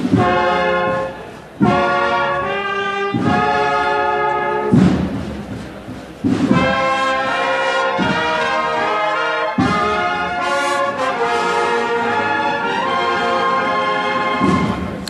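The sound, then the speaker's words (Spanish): Processional marching band music plays loudly and steadily as a procession enters La Campana and the band links into another march while the Servitas' guiding cross arrives. Full sustained brass chords sound over deep drum thuds landing every second or two, with no talking over it. “Hizo su entrada en campana, ahora enlaza otra marcha, cuando ya está aquí la cruz de guía de los servitas.”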